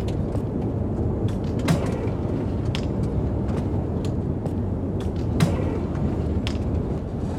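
A bathroom door creaks open slowly in a series of dry ticks and groans, set against a steady low rumbling background with no voices.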